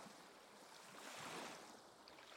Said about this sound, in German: Lausche vielleicht noch einen Moment den Wellen.